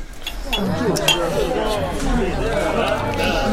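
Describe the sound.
Drinking glasses clink a few times in a quick toast among a group of writers drinking alcohol together, bright little chimes over the busy murmur of several people talking.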